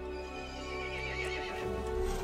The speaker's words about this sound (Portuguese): O cavalo ficou irritado e chamou os outros monstros.